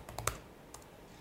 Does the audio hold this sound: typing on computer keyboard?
yes